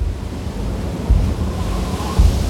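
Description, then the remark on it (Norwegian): Full storm at sea in a fjord, with snow falling, as a ship's crew drops anchor across from the island of Smøla: steady wind roar and heavy surf, two deep thuds of waves breaking around one and two seconds, loud and continuous with no voices. “Kapteinen ser ingen annen løsning enn å slenge ut ankeret sjøl om det er full storm.”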